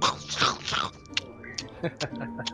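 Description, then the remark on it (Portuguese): Wet chewing and crunching sounds come in irregular bursts as someone chews a piece of meat, with faint tonal hum and brief mouth noises in the background. “assim mastigando uma, um pedaço de carne.”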